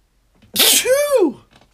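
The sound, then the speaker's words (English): A single loud sneeze: a sharp breathy burst followed by a voiced, arching 'choo' that fades out, with no talking over it. “But what I'm gonna sneeze again.”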